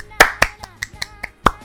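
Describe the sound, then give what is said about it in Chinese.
A quick run of about nine sharp hand claps in a loose, slightly uneven rhythm, the first and a later one landing harder, with a faint tonal murmur underneath. “有听过的人，我来，我先给你鼓鼓掌。”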